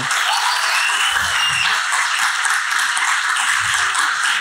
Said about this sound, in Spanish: porque no le damos un aplauso a este grupo de alabanza?